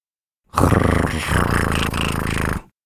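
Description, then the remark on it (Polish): A large grey dog growls in one low, rough, sustained rumble lasting about two seconds, loud, with no other sounds around it. “Nie reaguje. Za to słyszę pomruk z drugiej strony.”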